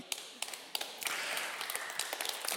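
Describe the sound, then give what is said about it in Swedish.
A few scattered claps start things off, then an audience joins in and the applause swells into a steady, dense patter of many hands with sharper claps standing out. No one speaks. “Bibeln, ja amen, får gärna applådera.”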